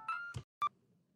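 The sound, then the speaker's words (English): A phone rings with electronic tones for an incoming call: a sustained warbling tone, a short burst, then a sharp bright beep after a brief pause, fairly loud with no voices. “Damn it, my phone is ringing.”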